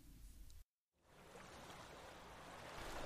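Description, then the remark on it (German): Steady wash of water and waves lapping against a boat on the North Sea, a continuous broad rushing that briefly cuts out near the start, then swells slightly louder, with no voices. “Währenddessen auf dem Boot.”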